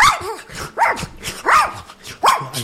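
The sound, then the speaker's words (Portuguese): A voice imitates an angry, wild dog, letting out four harsh, growly barks at a steady pace, each loud with a rough snarling edge. “Pela imitação que ele faz, Lobão, o cachorro, o cachorro virado.”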